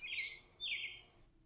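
A robin sings two short, high warbling phrases, one right after the other, with a brief gap between. It sounds fairly soft, with no other sounds around it.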